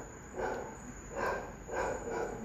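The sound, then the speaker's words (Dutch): A dog barks three times in a steady rhythm, fairly faint, with no voices over it. “Ik weet ook niet waarom dat hij nog blaft, want er is hier verder helemaal niemand.”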